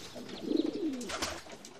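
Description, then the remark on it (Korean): A pigeon nesting inside a juniper tree coos once, a low, soft, rolling call that swells and trails off over about a second, with faint outdoor background noise and no talking. “향나무 속에는 비둘기가 둥지를 틀고 있었다. 그래서 그렇게 비둘기 소리가 컸었다.”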